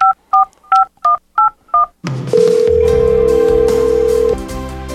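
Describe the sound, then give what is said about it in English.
Six crisp telephone keypad tones beep in a steady rhythm over about two seconds, clear, before loud music with a sustained high note abruptly takes over. “Yep, someone must be calling us, huh?”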